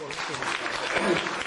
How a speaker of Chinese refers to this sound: 哇，有几位哈？好，我们同样以最热烈的掌声欢迎你们。